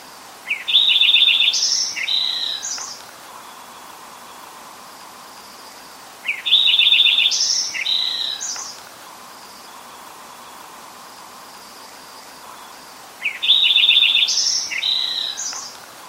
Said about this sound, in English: So if you walk around the boardwalk of the estuary, you might hear these there. So here is uh, Lincoln's sparrow singing.